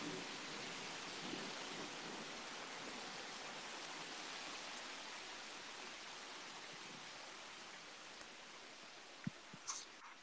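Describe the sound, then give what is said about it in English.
Steady, dense rain hisses evenly throughout, with a faint rumble of thunder beneath it and a few brief sharp taps near the end; no one speaks. “I think I lost you because the thunder was just going off.”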